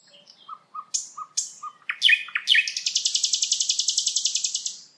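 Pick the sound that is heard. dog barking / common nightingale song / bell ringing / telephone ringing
common nightingale song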